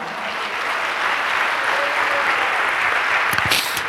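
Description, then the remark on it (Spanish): A church audience gives applause to God during a sermon, a dense, even wash of clapping hands at constant loudness for several seconds, with a few sharper claps near the end and no talking over it. “¿Cuánto le dan un aplauso a Dios por eso, hermano?”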